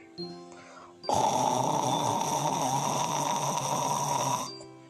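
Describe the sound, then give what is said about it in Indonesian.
A voice imitates the loud, rasping snore of a sleeping lion, one long sustained rumbling breath lasting a few seconds, forceful, after a brief quiet start. “Seluruh gua tampak bergetar dengan menengkur suara kerasnya ya si raja hutan.”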